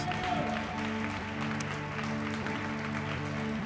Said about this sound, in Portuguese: Aplauda o Senhor mais uma vez, igreja, por essas vidas.